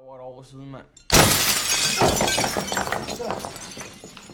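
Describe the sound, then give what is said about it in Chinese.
A brief voice is cut off by a sudden, loud smash of window glass broken by someone in the evening while dinner is being cooked in the kitchen, followed by a few seconds of scattered tinkling and clattering shards as the crash slowly dies away. “突然被人砸碎玻璃”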